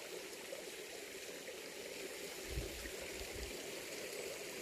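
A small stream running through a forest babbles steadily, its little cascades making a continuous soft rush and trickle with occasional low gurgles, without any voices.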